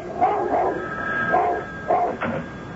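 A dog barks repeatedly in short, sharp bursts whenever the phone rings, about five loud barks in quick, uneven succession, with no one speaking.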